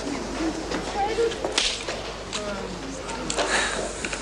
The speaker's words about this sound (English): Love the slap. It sounded so good.